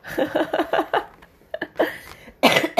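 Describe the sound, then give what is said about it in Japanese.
A loud run of rapid coughs set off by laughing, about five in quick succession, followed by a pause and a few more harsh coughs and throat-clearing bursts, with a hint of laughter mixed in. “もう笑うと咳出る。”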